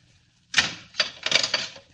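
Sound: door being closed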